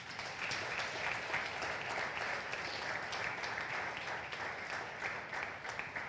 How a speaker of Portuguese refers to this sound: Quem recebe essa palavra, essa oração, quem concorda com essa oração, diga glória a Deus. Aplauda Jesus.